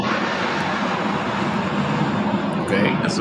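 A loud, steady roar of an airplane passing overhead in Mexico City, near Benito Juárez International Airport, a broad rushing engine drone that holds constant and swells slightly near the end.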